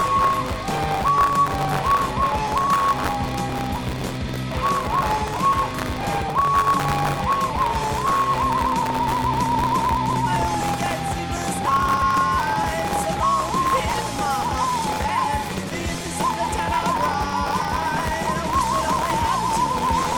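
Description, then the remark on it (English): A bright desk whistle carries a wavering, sliding melody for about twenty seconds, loud, over a dense, busy backing that stays steady throughout. No one speaks. “I should play the desk whistle for him.”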